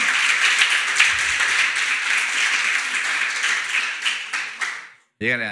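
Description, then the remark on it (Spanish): A church audience applauds the Lord, a dense, steady wash of many hands clapping for about five seconds before it fades out abruptly and a man's voice starts speaking. “Déjenle un aplauso al Señor.”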